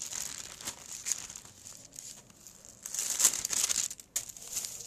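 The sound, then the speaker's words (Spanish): A plastic water bottle crinkles and crackles in irregular bursts for about five seconds, growing louder in the second half as someone pauses a Bible reading to drink water; no one speaks. “Vamos a leer, dice, perdón, un poquito de, lubricante, agua.”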